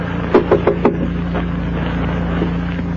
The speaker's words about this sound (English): I'll knock.